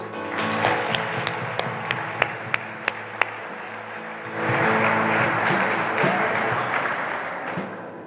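A few scattered, sharp hand claps ring out at first, then swell into a full burst of audience applause for Jesus that carries steadily for several seconds before fading slightly at the end.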